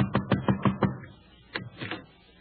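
Five quick, evenly spaced knocks on a wooden door, then a brief pause and two or three more raps, moderately loud with no voices.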